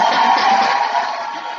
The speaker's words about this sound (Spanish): Ahí tienes tu ronda de aplausos.